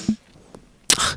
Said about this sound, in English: What was that? I sneezed. Oh, bless you.